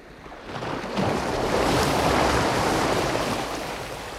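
Sea waves wash onto the shore in a steady, broad roar of surf that swells louder after the first second and holds, with no voices present.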